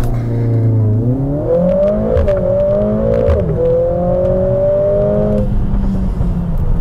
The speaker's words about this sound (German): Und dafür hat der GLA 45S noch mehr zu bieten. Die Launch Control ist sowieso serienmäßig, also ein Einfluss auf die Bremse, den anderen aufs Gas, Bremse loslassen und ab geht's.